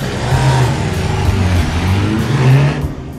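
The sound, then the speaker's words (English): Loud motorcycle and car engines rev and roar, pitch rising and falling as they pull away, a steady mechanical drone with no talking; a film scene in which Tom Cruise's character takes off on his motorcycle and Kelly McGillis's character follows in a car. “he takes off on his motorcycle. She follows right. in a car”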